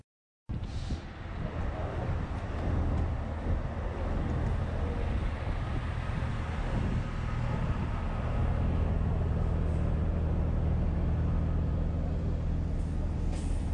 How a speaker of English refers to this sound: Every day here at the Jaber Crossing, there are these long lines of cars and buses and lorries passing into Syria.